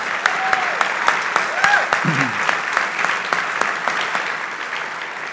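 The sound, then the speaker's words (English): An audience claps steadily for a minister at a speaker's request, a dense wash of hand claps with a few sharper individual claps standing out, continuing evenly for several seconds with some faint voices mixed in. “Let's give him a hand, all right?”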